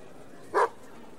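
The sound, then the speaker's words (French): A dog, Eden, lets out a single short, aggressive growl at a man, fairly loud, rising suddenly from a quiet background and cutting off after a fraction of a second. “Le chien, d'ordinaire si gentil, devient agressif et grogne sur l'homme.”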